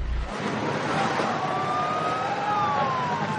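An ambulance siren wails in a slow rising and falling tone as the ambulance drives away from a tent, over a steady, broad rumble of vehicle and road noise, with no voices.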